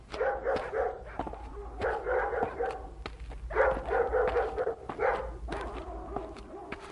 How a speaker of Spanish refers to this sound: después de tantas horas de caminar sin encontrar ni una sombra de árbol, ni una semilla de árbol, ni una raíz de nada, se oye el ladrar de los perros.